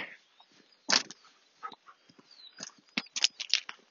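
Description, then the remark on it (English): Footsteps crunch over many loose stones as a person walks a dog on a lead, a steady, uneven series of gritty scrunches, moderately loud, with no voices. “Just again have to crunch over these many, many stones.”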